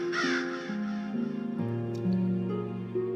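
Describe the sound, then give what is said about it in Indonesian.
Crows caw and flap their wings as they fly circling over a village, their harsh calls overlapping and repeating without pause over a steady, droning tonal background. No voices are present. “Suara itu terdengar di mana-mana, menyeruak di antara tumpukan jerami, membubung tinggi mengangkasa bersama kepak sayap gagak yang terbang mengitari perkampungan.”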